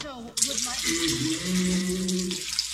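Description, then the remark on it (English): Vivek Ramaswamy urinates during a conference call with Alex Jones: a steady stream of liquid splashes with a continuous hiss for about two and a half seconds, after a brief voice at the start, with low murmuring voices underneath. “Vivek Ramaswamy was in on some kind of big conference call or podcast thingy or whatever. And uh, I guess Vivek at some point uh, was heard peeing.”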